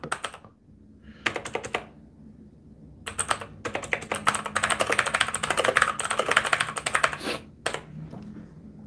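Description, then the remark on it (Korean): Rapid typing on a computer keyboard as a note is written down, starting in short bursts with pauses, then building into a long, dense run of clicking keys, fairly loud, with no voices. “이거 적, 적어놔야 되겠다.”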